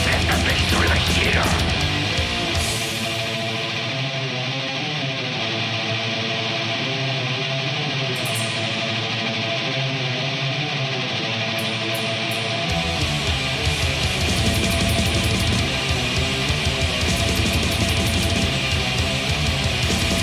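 A dense, loud old-school black metal passage by a band from Santiago, Chile, led by an effects-laden electric guitar with a bright, 80s-style tone, sustained and shimmering over a steady full-band backing, with no vocals.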